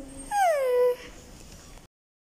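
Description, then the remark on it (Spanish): A voice imitates a wolf's whimper: a single drawn-out, descending whine with a clear tonal quality, about half a second long, fairly loud, followed by quiet background. “Y el lobo dijo,”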